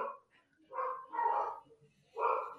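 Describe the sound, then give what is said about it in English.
Two dogs barking in a few short, uneven bursts, three main outbursts separated by brief pauses, fairly quiet overall. “oh, I hear both doggos.”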